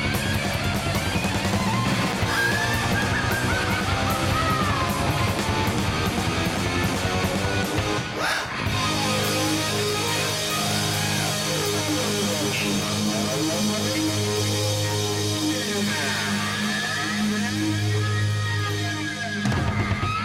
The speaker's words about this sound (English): the big rock ending for loss of control from women and children first